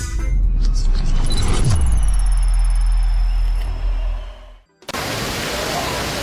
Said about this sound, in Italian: Buonasera, spero che il rumore del, dell'acqua che, eh, che, scroscia non vi impedisca di ascoltare quello che eh, sto per dirvi perché eh, come vedete sono in un luogo abbastanza caratteristico di Roma, vale a dire la mitica Fontana di Trevi.